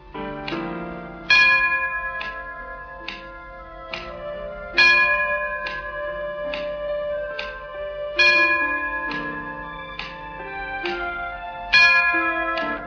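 A clock chimes a steady run of resonant, bell-like strikes, each tone ringing into the next in an even rhythm, with a few stronger accented strokes. No one speaks.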